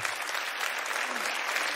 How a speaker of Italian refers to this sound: fate, fate un applauso